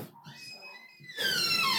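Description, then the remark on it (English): A door hinge squeaks in a drawn-out, wavering creak that grows louder and harsher partway through, its pitch sliding downward as the door keeps moving. “I'm going to oil that door is what I'm going to do.”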